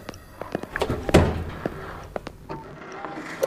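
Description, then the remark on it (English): A heavy door is handled: a few clicks and creaks, then one loud, deep thud as it swings shut, followed by quieter knocks and rattles. “We'll take this door.”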